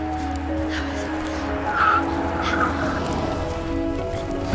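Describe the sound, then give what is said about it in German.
A car engine hums steadily as the vehicle rolls in and slows, with a couple of faint brake squeals partway through before it settles to an idle. “Ah, oh, okay, ich sehe dein Auto.”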